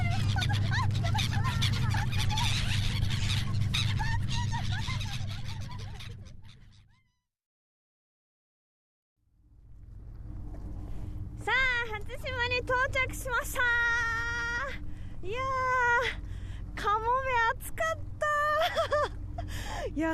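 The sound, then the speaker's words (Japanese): Loud gull calls cry out in rapid overlapping squawks as the seagulls are fed from the crowded top terrace on a sunny day, on the way to Hatsushima, against a steady engine-like rumble, following a brief silence; the earlier part carries a dense, noisy crowd-like wash. “いやーすごいカモメもね周りで追いかけてきてくれますよいやね本当に今日はお天気がいいので今トップテラスの方にいるんですけれども人もたくさんいてねもうあのすごい身近でカモメと触れ合うことができるあすごいもうね餌もあげられるらしいので私もちょっと餌あげてみようかな”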